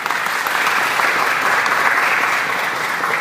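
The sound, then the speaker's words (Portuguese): An audience applauds the Lord for a miracle, steadily, a dense wash of many hands clapping at an even, loud level for a few seconds with no voices standing out. “Hoje aplaudir é o nome do Senhor aí, que é milagre, gente.”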